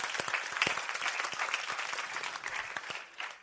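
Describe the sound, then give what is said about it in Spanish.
A church audience gives itself a round of applause, clapping steadily, a dense crackle of many hands with sharp individual claps popping through, holding fairly even before thinning slightly near the end. “la verdad que yo quisiera que se den un fuerte aplauso a ustedes mismos por lo que están haciendo”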